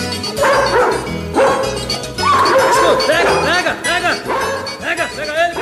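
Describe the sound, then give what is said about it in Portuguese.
A dog barks loudly and repeatedly in quick, uneven bursts, with a voice urging the dog on underneath and alongside the barking throughout. “Pega ele, cachorro, pega, pega, pega, pega, pega, escuta, escuta, escuta.”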